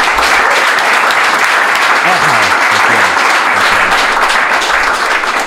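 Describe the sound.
Loud, sustained applause from a crowd fills the whole stretch, a dense wash of clapping with a voice faintly audible underneath partway through.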